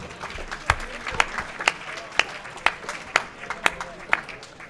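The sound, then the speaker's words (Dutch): An audience applauds steadily at a quiz prize-giving, cheering team 4, a dense patter of many hands with sharper individual claps popping out roughly every half second, sustained at a moderate level throughout. “Een applaus. Braaf, proficiat.”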